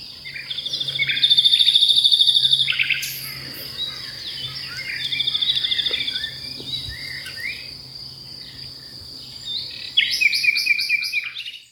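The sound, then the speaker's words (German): A nightingale sings a varied, rich song of rapid trills, whistles and sharp repeated notes, loud, pausing between phrases, with a faint steady insect hum underneath. “Also er sagt, also die Nachtigallen gelten generell im äh, Vogelreich als die Mozarts der Vögel.”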